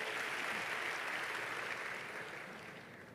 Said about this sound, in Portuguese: Amém? Dê um aplauso a ele, tome o seu assento.